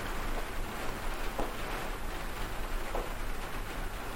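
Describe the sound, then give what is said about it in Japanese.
Steady rain patters on the polycarbonate roof of a garden room overhead, a dense, light tapping hiss with occasional sharper drops, continuous and even throughout with no voices. “なのでね、天井がガラスじゃなくて、ポリカーボネットでできてるので、まあ雨音がね、軽い感じの音ですよね”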